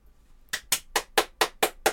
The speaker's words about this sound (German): Ich liebe es, ich liebe es wenn, wenn nur einer klatscht. Ich finde das so toll. Es ist großartig.